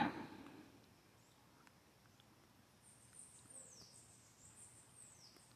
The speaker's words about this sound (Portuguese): Passarinho, que se delicia com os frutos.